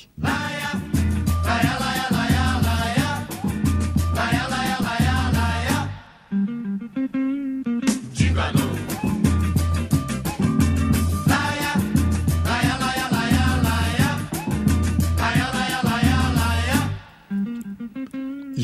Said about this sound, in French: j'ai grandi avec cette chanson